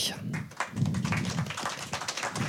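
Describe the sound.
Brief applause welcoming a guest, a literary scholar and critic: a small group clapping in quick, uneven bursts for a couple of seconds, with low voices murmuring underneath.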